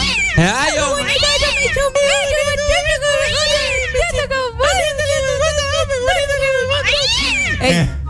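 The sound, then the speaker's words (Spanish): A cat meows repeatedly and loudly, a string of drawn-out, rising and falling cries that follow one another almost without pause for several seconds. “también se está celebrando el Día Mundial del Gato.”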